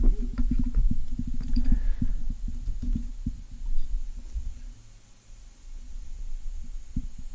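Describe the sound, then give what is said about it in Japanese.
A coffee siphon bubbles and gurgles in low, irregular pops, steady, thinning out for a moment midway before picking up again. No one speaks. “時々こう、あれですね、サイフォンの音が来てますよね。”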